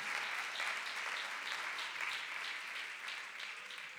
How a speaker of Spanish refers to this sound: Bendito sea el nombre de Jesús. El fuerte aplauso, Señor, con el corazón.